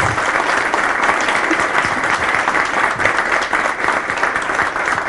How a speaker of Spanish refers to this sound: quisiera que ustedes se dieran ese aplauso de todo corazón por ser un ente tan comprometido con la capacitación y particularmente ahora con la capacitación en materia de archivos. Muchas gracias y dense un aplauso porque es ustedes.